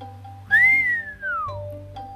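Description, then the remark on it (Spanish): A single bright whistle of joy from an animal standing on its hind legs and stretching its snout rises quickly, holds, then glides downward over about a second, sounding clear with a low hum underneath. “Así que se levantó sobre las patas traseras, estirando el hocico y soltando un silbido de alegría.”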